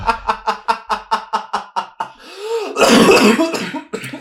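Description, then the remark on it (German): A rapid fit of about nine short, sharp coughs in quick succession, close and loud, followed by a longer, harsher hacking burst as the coughing winds down. “sehr eleganter, sehr eleganter Huster noch.”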